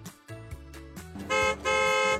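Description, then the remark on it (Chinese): A car engine hums low, then a horn honks twice, loud and bright: a short blast followed by a longer one, as Sister Giraffe arrives driving her car. “是长颈鹿姐姐又开着车来了。”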